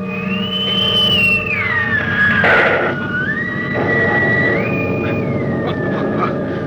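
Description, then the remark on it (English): A plane-explosion sound effect as Barnhouse blows a plane out of the sky: a loud, wavering whistle glides down and up in pitch over a steady rumbling roar, with a short noisy burst partway through. No one speaks. “Barnhouse blew it right out of the sky.”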